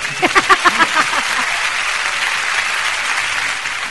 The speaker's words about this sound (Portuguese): Sejam muito é, bem-vindos, a salva de palmas. Já já as palmas chegam. Palmas.